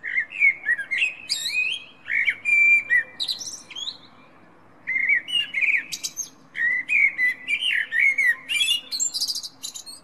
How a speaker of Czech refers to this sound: No ale nejkrásněji tam se nabízí takové ty, ty klasické druhy, jako je slavík, ale krásně zpívá třeba i kos.